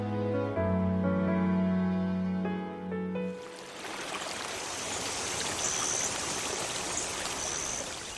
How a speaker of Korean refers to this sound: 영진 씨는 이 마을의 흠이라며 계곡물 소리를 언급했지만 우리에게는 계곡의 물소리도 오로지 동화의 고함 소리를 약화하는데 도움이 되는 고마운 장치였다.